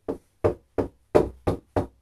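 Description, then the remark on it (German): Six dull, hollow knocks on a pinboard, struck at a steady rhythm, each one short with a quick decay and silence between. No voices. “Ich habe gegen die Pinnwand geklopft.”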